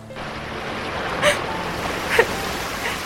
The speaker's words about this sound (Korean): 어, 어 뭐야? 아이, 비가 오잖아. 아, 냇물이 불고 있어.